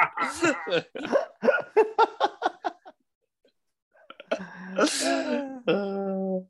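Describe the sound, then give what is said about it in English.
A quick series of choppy, hiccuping bursts, a short pause, then two long, loud, drawn-out belches, the second one trailing off abruptly. “I'm so full of wind. As soon as I stand up, there's going to be a burp fest.”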